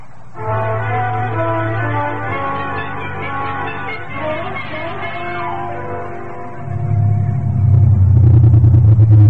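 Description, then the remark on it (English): A car engine drones with a steady low rumble and humming overtones, then swells louder in the final seconds as it drives. No one speaks. “The car's right down at the curb.”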